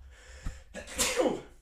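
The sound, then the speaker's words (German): A single sneeze rings out: a quick sharp intake of breath, then a loud bursting exhale with a falling hiss that fades after about a second. “Gesundheit. Gesundheit, ja.”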